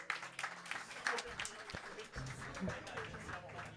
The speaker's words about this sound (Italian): Applausino, per favore, grazie.